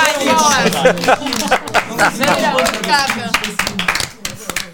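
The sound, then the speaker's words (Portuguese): A small group, the main cast, applauds themselves with quick, overlapping claps that carry on steadily, while several voices talk and call out over the clapping, which tapers off toward the end. “E uh, eu, eu peço um aplauso do próprio elenco para si mesmo.”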